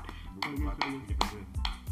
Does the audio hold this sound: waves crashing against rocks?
no